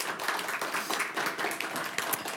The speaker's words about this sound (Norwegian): Gi han en varm applaus. Han skal snakke om den ferske boka si 'Svenske tilstander'.